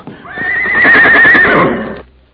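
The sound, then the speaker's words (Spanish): A tame, gentle horse lets out a loud whinny lasting about two seconds, rising sharply then trembling and fading, with no talking over it. “Oilo, ya está pajareando porque nos veo. Es un buen caballo y muy mansito.”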